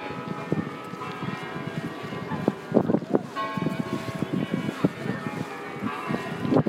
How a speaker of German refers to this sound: Oh, jetzt hört ihr gerade die Glocken hier vom Kreml. Hört ihr das?